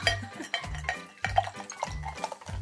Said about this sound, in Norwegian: skal det være litt bobler i glasset. Ja, jeg gjør det. Takk skal du ha.